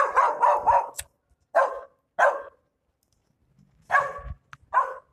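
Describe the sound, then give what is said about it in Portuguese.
A dog inside a house barks in short, sharp bursts while someone walks past outside: a quick run of three or four barks, then separated single barks with pauses between, loud, with no one talking. “Aí ó, tá uma porra do cachorro aqui, gente.”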